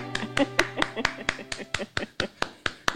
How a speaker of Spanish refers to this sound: Aplausos, aplausos.